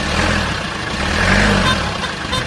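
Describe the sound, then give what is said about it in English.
The engine of a taxi, Today FM's Talking Taxi, idles with a steady low rumble and a faint mechanical hum that swells slightly midway, continuous throughout with no voices, in Dunboyne, County Meath. “been trekking the nation in Today FM's Talking Taxi.”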